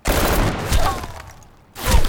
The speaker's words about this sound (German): Schüsse von unten schlugen um ihn herum ein, lösten große Stücke aus seiner Deckung und rissen Löcher in nahe Container, auf denen sich oft Zeichnungen eines traurigen Strichmännchens befanden, das in die Luft gesprengt wurde.